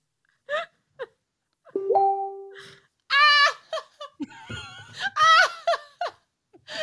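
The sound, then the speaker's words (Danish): A short electronic notification chime for incoming messages sounds once, a steady tone lasting under a second, set among bursts of laughter and giggling from people. “det var uh, faktisk beskeder omkring pattesonen, der tigger ind.”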